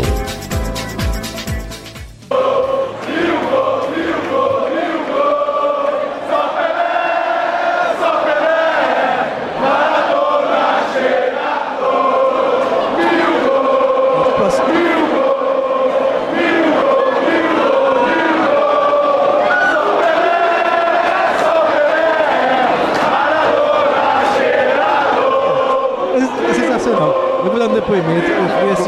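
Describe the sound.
A big crowd of Brazilian football fans sings a rhythmic chant together, loud and continuous for nearly half a minute, many voices blending into one steady, echoing song.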